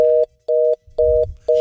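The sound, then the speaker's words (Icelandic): A telephone busy signal: four steady, mid-pitched electronic beeps pulse on and off in an even, quick rhythm, with brief silences between them and nothing else alongside. “Hann var ekki að skella á Skellt hann á okkur að?”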